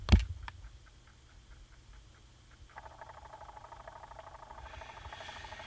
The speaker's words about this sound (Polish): I co się teraz dzieje? Zegar od 6 będzie kręcił nam godziną do godziny 12. Wszystkie będą wskazówki na godzinie 12 i dopiero zacznie się aktualizować. Po czym znowu będzie nam kręcił wskazówkami do godziny właściwej. To będzie trochę trwało.